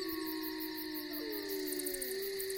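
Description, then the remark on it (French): Several wolves howl together in long, overlapping wavering tones, one voice sliding downward while others hold steady, filling the space continuously with no talking. “Les loups se mirent à hurler et l'île à trembler.”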